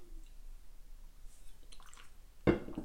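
Someone takes a sip of water: faint wet slurping sounds, then one louder swallow near the end. No one talks.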